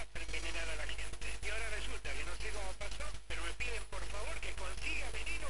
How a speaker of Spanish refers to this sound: ¿Sigue la interferencia?